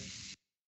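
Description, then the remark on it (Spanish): A single sharp sneeze, a short breathy burst of noise that cuts off abruptly and leaves silence behind. “Salud.”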